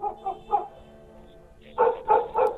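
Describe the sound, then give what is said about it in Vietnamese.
A large black dog barks fiercely in two rapid sets of three, the first volley softer and the second louder, with no voices present. “con chó mực to đột nhiên nhảy cỡn lên hung thần ác sát nhìn chằm chằm vào con miêu yêu mà sủa lên ông ổng”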